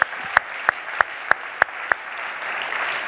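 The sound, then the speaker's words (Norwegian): Audience applause for someone's engagement: a steady run of seven sharp, evenly spaced claps rings out over a hissy wash of clapping that swells slightly toward the end, with no talking. “og så må alle gi en klapp for det, syns jeg.”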